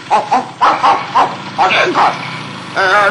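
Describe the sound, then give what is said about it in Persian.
Two farm guard dogs, Nappy and Luffy, bark in a rapid, excited run of sharp yaps at a man arriving on a motorbike, about eight barks in three seconds, some overlapping, ending on a longer, wavering bark. “که میخواست با موتورش از روی پل رد بشه تا سگا رو دید به وحشت افتاد و دست پاچه شد و تصمیم گرفت از اونجا فرار کنه”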